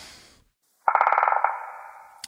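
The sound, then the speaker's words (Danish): A telephone bell rings once, a rapid metallic trill of about half a second that leaves a bright tone fading away. A brief rustle and a short silence come before it. “Øh, det er naturtelefonen, kan jeg høre.”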